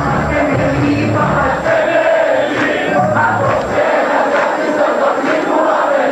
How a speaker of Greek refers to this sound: Θέλω να ακούσουμε πρώτα ένα πολύ μικρό απόσπασμα από το σύνθημα που φωνάζαμε και βάζω τον εαυτό μου μέσα γιατί είχα βρεθεί στο Σύνταγμα σε αυτές τις συγκεντρώσει.